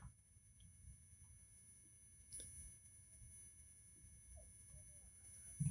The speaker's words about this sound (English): Now we start to listen closely for the ringing of the tinnitus. Her head is ringing, ears are ringing.